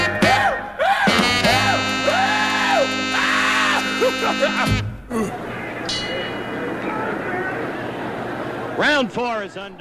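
A rhythm and blues song with wild, screamed and wailing vocals swooping up and down over held instrumental chords, which drop into a rougher, noisier stretch with more loud yelps near the end.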